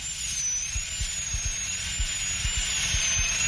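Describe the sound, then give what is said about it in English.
A dental drill whines steadily at a high pitch as a dentist drills out an old tooth filling, grinding continuously, with faint low thumps underneath and no voices. “I'm drilling out the old filling now.”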